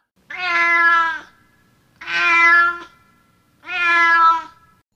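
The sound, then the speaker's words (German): A cat meows three times in a slow, even rhythm, each call long and drawn out with a brief pause between, fairly loud with no talking. “Es dauerte nicht lange, da saß da eine Katze an dem Wege und machte ein Gesicht wie drei Tage Regenwetter.”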